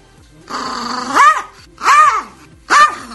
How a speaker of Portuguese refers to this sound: Porque esse cachorro tem um demônio dentro do corpo.